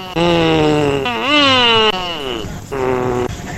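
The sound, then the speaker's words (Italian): A voice imitates a revving motorcycle doing a wheelie: loud, buzzy droning tones that rise and sweep in pitch, break off briefly, then rev again in three bursts. “Raga, la moto.”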